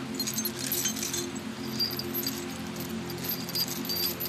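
A bunch of keys jangles continuously, bright metallic clinks shimmering over a steady low hum, fairly quiet, with no one speaking.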